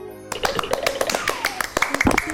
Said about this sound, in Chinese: 好，再次鼓掌。